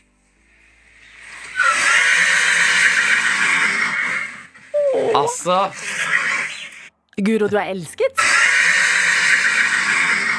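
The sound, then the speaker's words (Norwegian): A horse whinnies excitedly in long, raspy, sputtering bursts, loud, happy that a person is coming in one morning, with a short break where a person says good morning before the noisy calling resumes. “i dag så er det en hest som er altså så glad for at … kommer inn”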